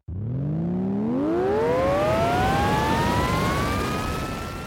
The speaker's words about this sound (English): She's worried it's broken, but she twists it on as they thunder towards the poacher's smoking wreckage, and it comes alive with an energetic hum.